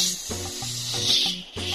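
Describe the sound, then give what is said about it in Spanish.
A person imitates a viper with a long, steady, breathy hiss that lasts nearly two seconds, fairly loud and sharp, over a faint low tonal background that shifts pitch in steps. “Algunas víboras le hacen”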